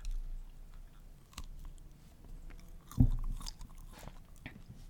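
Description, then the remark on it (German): Someone bites into firm, dense pumpernickel bread and chews, with soft moist crunching and a sharper bite sound around the middle, steady and fairly quiet with no talking. “Nein, es war Pumpernickelbrot.”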